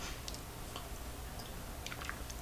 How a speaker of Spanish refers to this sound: Para reiniciar la semana informativa en este podcast hace falta un buen café, que además es amargo sin una gota de azúcar, mucho mejor para mí. Así que me voy a dar este primer sorbito del día.